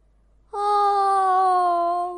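A voice imitates a yawn in a bedtime story, as a story character wakes up at seven in the morning: one long, loud, drawn-out voiced sigh lasting nearly two seconds, its mid pitch sliding slowly downward before easing off, with no other sounds around it.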